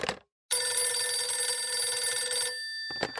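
An old-fashioned telephone bell rings loud in one sustained two-second burst, its rapid metallic trill cutting off abruptly, with brief faint noises just before and after.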